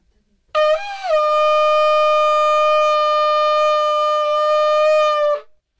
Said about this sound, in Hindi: मेरी मासी ने मुझे एक्चुअली एक शंख खरीदा था जी आप लेकर भी आए हैं जी।, जी तो क्या आप हमें एक बारी वो शंख बजाकर सुनाएंगे बिल्कुल